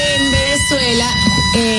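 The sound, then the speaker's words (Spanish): A fire engine siren holds a steady, high wailing tone with shifting pitch, running continuously beneath someone talking over it. “Esa es la sirena de, la, de los porque bomberos.”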